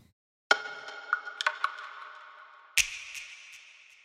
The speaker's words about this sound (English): The percussion is comprised of three different wooden elements, with two block sounds and a short rattle. By themselves, they don't sound that much. But they work much better when combined with a snap, some delay, and plenty of reverb.